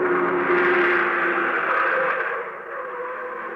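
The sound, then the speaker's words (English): A heavy limousine driven by a chauffeur roars loudly past on a road beside a jungle thicket, its engine a broad steady rumble with a droning hum that eases off slightly toward the end. “But then I heard a motor behind me, so I dove for the underbrush again just as a heavy car roared by.”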